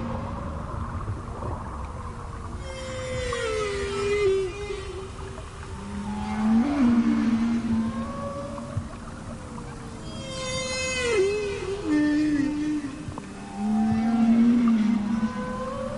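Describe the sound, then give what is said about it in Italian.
Underwater gray whale calls: a series of low moaning, warbling tones and rising whoops that repeat irregularly over a constant hiss of ocean noise, with no voices present. “Rispetto alle loro parenti come le balenottere o le balene azzurre, le balene grigie sono considerate la specie meno evoluta.”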